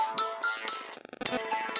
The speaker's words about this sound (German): Oh, mein Handy klingelt.